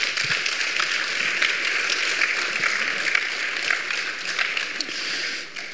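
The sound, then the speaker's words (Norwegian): An audience at a church Bible school event breaks into steady applause as two people are called up, many hands clapping in a dense, continuous patter that stays loud and even for several seconds, with no voices standing out. “Lov å klappe.”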